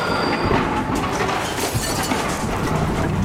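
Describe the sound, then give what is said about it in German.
A train speeding at nearly twice the permitted speed toward a tight curve roars past, a loud, steady rumble and rattle of wheels on track, with a thin metallic squeal riding faintly above the noise. “Fast doppelt so schnell wie erlaubt rast der Zug auf die enge Kurve zu, bis es kracht.”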